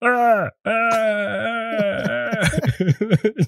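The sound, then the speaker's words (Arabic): A voice imitates a drawn-out wail of pain, the cry of a man who dislocated his shoulder while lifting a microphone: a loud sustained cry that breaks off, resumes, then dissolves into choppy, sobbing-like bursts toward the end. “مسك الميكروفون هذا اللي بتشوفوه جنبه الاسود بده يحركه بس يرفعه شوي ولا بلاقيه بيصيح”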